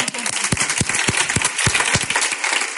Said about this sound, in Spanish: Un aplauso para ti.